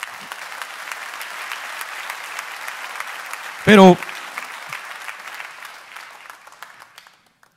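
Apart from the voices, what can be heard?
audience applause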